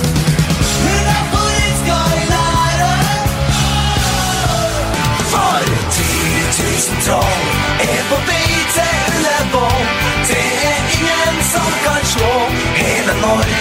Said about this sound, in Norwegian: Vi skal ikke si så mange ord, vi skal heller snurre eh, noen sanger. Og hvis du ikke har hørt noen til disse her, da mhm. hør på dette her.